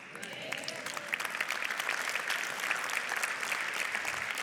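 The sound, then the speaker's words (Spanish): A church audience breaks into sustained applause during a sermon, a dense, steady wash of many hands clapping at even loudness for several seconds with no speech over it. “Si aplaudió, eso tiene que ser verdad de su vida.”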